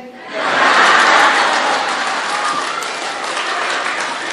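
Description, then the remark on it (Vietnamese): A crowd bursts into loud, sustained applause, a dense wash of clapping that swells quickly and holds steady for several seconds with no speech over it. “thấy miệng vỗ tay quá trời luôn”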